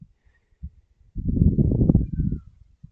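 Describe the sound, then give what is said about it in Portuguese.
Rooftop wind gusts against the microphone as a low, rumbling roar that swells for about a second and a half, then fades, with a few soft thumps before and after. “Uh, yeah, eu esqueci de avisar, mas se calhar é possível ouvir um bocado de vento, porque eu estou no telhado.”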